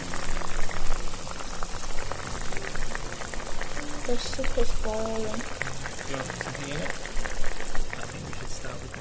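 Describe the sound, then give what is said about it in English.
A pot of slightly spicy hot pot soup bubbles at a steady, vigorous boil on a stove, with a dense crackle of popping bubbles throughout and a few faint tones and background murmurs mixed in. “After that, it's just a matter of frying up the stove, pouring slightly spicy hot soup in, and waiting for it to boil.”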